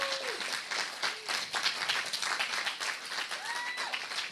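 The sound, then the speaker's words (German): Sustained audience applause for the youth, a dense wash of many hands clapping steadily throughout, with a few faint whistles rising above the noise near the start and end. “Ich bin wirklich, also, da gibt man den großen Applaus für die Jugend.”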